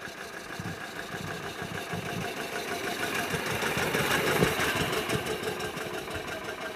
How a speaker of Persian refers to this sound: چارلز وقتی سوار ماشین هنری شد برق از چشماش پرید ماشین خیلی سریع نبود پیشرفت تکنولوژیکی عجیب غریبی هم نداشت ولی تا دلتون بخواد کم صدا بود و نرم کار میکرد طبیعتا به نسبت ماشینای اون موقع دارم میگم با اینکه دو سیلند بود و چارلز ماشین چهار سیلند میخواست